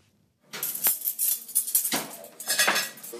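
Dishes and cutlery clatter in the kitchen of a shared house (collective) at Byåsen in Trondheim, Norway, a steady run of bright clinks and scrapes that starts after a brief quiet moment and carries on without pause. No voices are heard.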